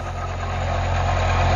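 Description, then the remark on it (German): A tractor's heavy engine drones steadily as it pulls a fertilizer spreader across a field, a low rumbling hum with a constant tone that grows slightly louder over the short stretch, with no voices present. “Ein Traktor zieht eine Düngermaschine über einen Acker.”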